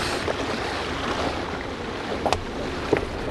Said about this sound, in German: Die beiden versperren mit unserem Boot den Ausgang der Bucht. Motor drosseln! Bob, drossel den Motor!